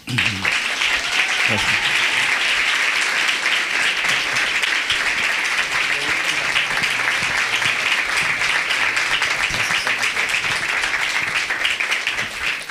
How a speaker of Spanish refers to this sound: Y así termina. Un aplauso.